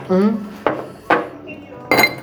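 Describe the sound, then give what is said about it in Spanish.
Ice cubes clink sharply into drinking glasses as drinks are poured, three bright knocks spaced about half a second apart, with a brief voice murmuring at the start. “Pónmelo dos hielos, ¿no?”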